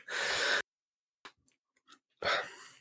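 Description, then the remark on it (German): A breathy yawn: a long airy intake of breath, a short pause with faint mouth clicks, then a drawn-out exhale trailing off. No talking. “Genau, Entschuldigung, ich musste gähnen.”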